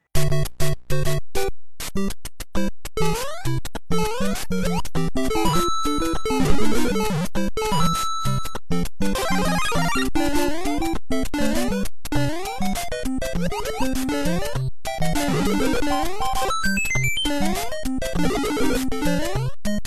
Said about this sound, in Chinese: 好来，那么最后我们再注意来听一下《超级马里奥》当中音效响起的时候，哪些通道的声音会逐步消失呢？看看我们亲爱的听友，你有没有这个耳力能听得出来呢？